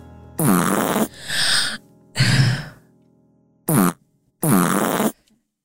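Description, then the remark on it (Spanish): A string of five loud fart sound effects, each a brief raspy burst separated by short silences, some longer and sputtering, others quick and sharp, with no talking. “Tengo el poto raro, weón. Y por eso mismo les tengo el nuevo sonido en la mesa.”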